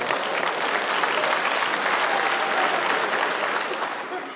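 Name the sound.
audience applause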